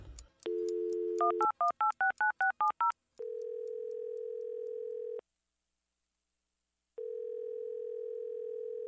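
A telephone dial tone gives way to a quick run of about nine keypad beeps, followed by two long, steady ringback tones separated by a silent pause. Clear, with no voices.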